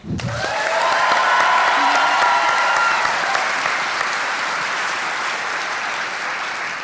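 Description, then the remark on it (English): A crowd bursts into sustained applause, a dense steady patter of many hands clapping that holds loud for several seconds before easing slightly, with a few faint cheers mixed in. “I applaud you, and so are they.”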